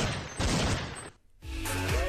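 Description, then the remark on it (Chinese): A sound effect of a rapid volley of gunfire crackles loudly for about a second, breaks off into a brief silence, then resumes as dense, rattling shots blending with a tonal, whining layer. “有没有射击的感觉？”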